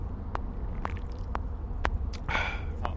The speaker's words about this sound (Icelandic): ef ég reyna að ná þér bara alveg að drekka og taka sopa